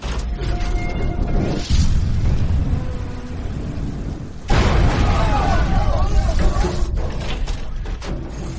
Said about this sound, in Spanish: A las 8 y 12 de la mañana sufrimos una sacudida debido a una explosión.